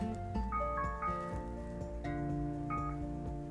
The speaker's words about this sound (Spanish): Ay, me suena la alarma. No sé ni por qué no sé ni por qué tengo esta alarma.